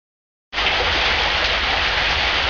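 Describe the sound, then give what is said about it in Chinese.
Steady rain begins abruptly at night after a brief silence, a dense, even hiss of falling water with a low rumble beneath, continuing unchanged and fairly loud, with no voices. “这天是周末，晚上又下起了雨。”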